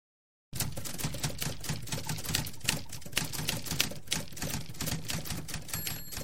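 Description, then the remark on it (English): Rapid, steady clacking of typewriter keys, fairly loud, with a continuous rhythm of sharp strikes and an occasional bell-like ding, no voices. “But for all his greatness, Robert Moses may have been brought to his downfall by a single typewriter key.”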